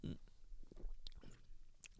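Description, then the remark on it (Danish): Someone quietly sips wine, with a few brief wet slurping and lip-smacking sounds spread over a couple of seconds in near silence. “Jeg, jeg tager lige en tår igen.”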